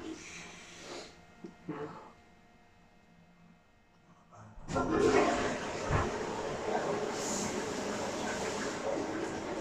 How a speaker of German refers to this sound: Hört ihr es? Ein Wasserfall.